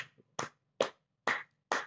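Four sharp, evenly spaced hand claps ring out at a steady, deliberate pace, each a crisp slap of moderate loudness with a brief quiet gap between, and no talking.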